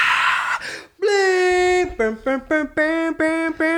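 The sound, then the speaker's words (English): One voice imitates a screaming concert crowd: a breathy rush, then a long, loud, high wail followed by a string of short, sharp yelping screams. “I wish I could make fun of how much he's exaggerating, but those are the screams of the crowds”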